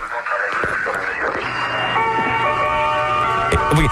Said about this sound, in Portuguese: E ele, é vá, isso é a Rádio Praga, vamos ouvir. Rádio Praga, mítico. Aqui, Rádio Praga, Tchecoslováquia.